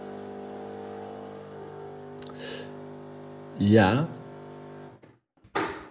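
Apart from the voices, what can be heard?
coffee machine running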